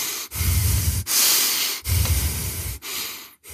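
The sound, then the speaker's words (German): Several loud, deep breaths drawn in and pushed out in quick succession by a person short of breath after talking a lot, a rough airy gasping with a breathy hiss, with no talking. “Mir ist aufgefallen, dass wenn ich viel rede, dass ich dann irgendwie irgendwann schlechter Luft bekomme und dann muss ich”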